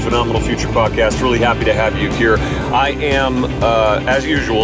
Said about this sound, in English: driving in my car, so sorry for the extra noise if there is uh, an annoying hum in the background or a little bit of extra wind. That is just what we do.